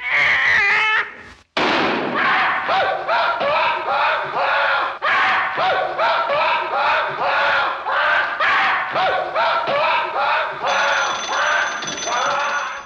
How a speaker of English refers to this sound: It's almost a canned screen that that they did, uh, you know, in the in the booth somewhere. I'm after- inserting the scream in here right now.